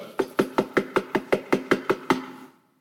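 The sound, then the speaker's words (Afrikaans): About a dozen quick, evenly spaced knocks on wood, demonstrating knocking at a door, in a steady, urgent rhythm, fairly loud, with no voices, then the knocking stops and silence follows. “Wie van julle het al ooit so geklop by jou deur?”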